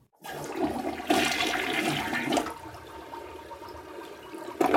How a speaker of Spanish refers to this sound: Sí, ingeniería hidráulica porque en general un inodoro es una pieza para el arrastre de materia orgánica que requiere una descarga de mucha agua, con gran caudal y en tiempo muy corto.